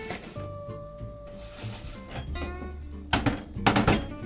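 About 6 g of dry tea leaves being taken out of storage to make cold-brew tea rustle and crackle in two short, scratchy bursts near the end, after a few quiet seconds with a faint tonal hum in the background.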